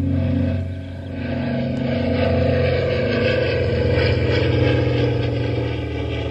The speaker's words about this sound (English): Hey, take a listen, I mean. Yeah. I mean, take a look and a listen. I mean, there's a signal plane.